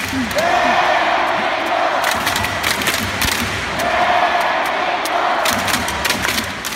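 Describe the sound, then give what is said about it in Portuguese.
A loud imitation of the South Korean football fans' chant, with sustained shouted notes rising twice over dense stadium roar and sharp rhythmic hits like drums or claps between them. “No dia que, no dia que a gente passar pela Coreia do Sul e não tiver você fazendo esse grito, não vai ser o Partiu Qatar.”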